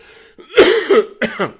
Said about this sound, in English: Now, excuse me. I tell you, when I got COVID, I didn't realize it was going to last on and on and on that you have this cough, and this cough will